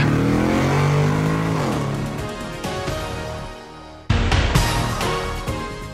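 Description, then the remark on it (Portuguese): A car engine revs loudly and pulls away, its pitch climbing through a couple of gear changes as it accelerates, with no one talking. “engata a primeira, vambora!”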